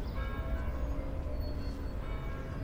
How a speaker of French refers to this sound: J'ai pas ajouté de bruitage, hein, il est midi, ce sont les cloches des églises du quartier.